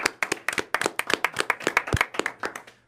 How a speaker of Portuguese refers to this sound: Ó, palmas aqui. Bate palmas aí também